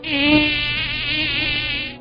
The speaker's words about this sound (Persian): ای این از کجا پیدا شد من الان تو مسافرتم جالب بود پشه که سابق بر این رو سقف اتاقم سر کلش پیدا میشد این بار توی اتاق هتل سر کلش پیدا شد و باز مثل همیشه رفت نشست رو سقف اتاق